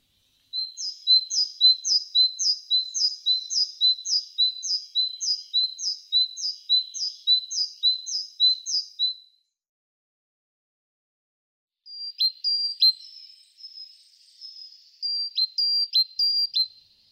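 A bunting sings a fast, even series of high, buzzy repeated notes for several seconds, then falls silent before a few shorter bursts of chirps. The bird is alone.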